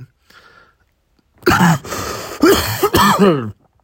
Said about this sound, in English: there's the cough.